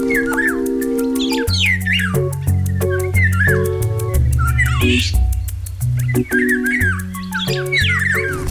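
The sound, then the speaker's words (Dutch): Fluting, whistled phrases of a golden oriole repeat over a loud, steady musical backing with sustained chords and a regular rhythmic pulse; no one speaks. “Het is geen geheim eh, dat jij een, een zwak hebt voor de biloaal?”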